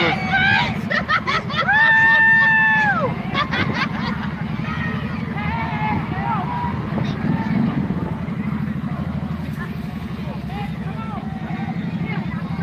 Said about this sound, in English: And we are in the heart of Center Point. This is where all the action is. So you sit back, watch, and listen to the sounds of their Christmas